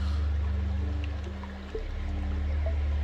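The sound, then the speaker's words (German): A small, calm stream in a green valley with trees, flowers, birds and butterflies flows steadily and continuously at moderate volume, with a low constant rumble beneath the gentle wash of water and no voices. “Frisches Grün, bunte Blumen, überall Vögel und Schmetterlinge, Bäume und ein kleiner, ruhiger Bach.”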